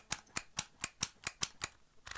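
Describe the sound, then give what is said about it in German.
A label maker clicks sharply about eight times in a steady rhythm, each crisp mechanical snap fairly loud, with brief quiet gaps and no talking. “benutze das mehr als wundervolle Etikettiergerät.”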